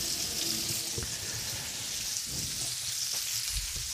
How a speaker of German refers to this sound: So, jetzt kommt dann noch Zucchini zu. Hm, die Mache ich einfach ein bisschen mit Wasser sauber. Da kann man ja die Schale mitessen.